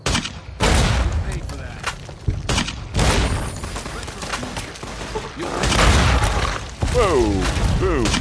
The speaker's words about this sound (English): I'm gonna see if I can show them who is boss here. With I got 14 40 millimeter grenades and my trusty mercenary grenade rifle. Legion guys are thoughtfully walking in a line here.